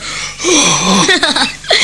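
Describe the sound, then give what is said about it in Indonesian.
An old grandfather pants heavily and out of breath after martial-arts practice, with rough breathy gasps and strained voiced groans running together over about two seconds. “Wah, aduh, napas kakekmu bisa putus”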